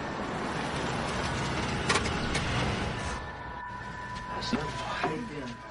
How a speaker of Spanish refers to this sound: cruzó en coche la ciudad y fue a la casa de los padres